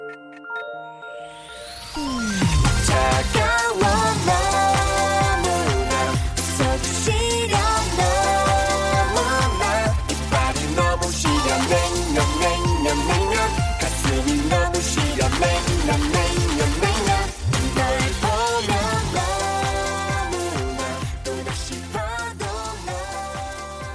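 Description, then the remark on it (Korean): An upbeat pop song plays on air, opening with a short rising intro before a full band kicks in with steady drums, bass and bright synth or bell-like melodies, loud and continuous without talk. “노래 한 곡 듣고 가죠.”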